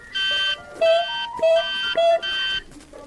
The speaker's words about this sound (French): L'horrible son de mon réveil sonna.